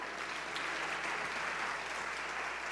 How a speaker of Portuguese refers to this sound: Se você crê, glorifica o nome do Senhor com as suas palmas aí.